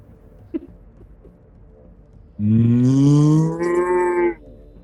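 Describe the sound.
After a quiet stretch with a faint tap, a person lets out one loud, drawn-out imitation of a cow's moo, rising slightly in pitch and lasting about two seconds, clear.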